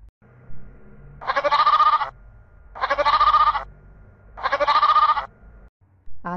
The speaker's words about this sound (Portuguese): Pulava outra ovelha, não caía na lagoa, caía na pedra, quebrava o pé e chorava. E assim, quarenta e duas ovelhas pularam, quebravam o pé e choravam.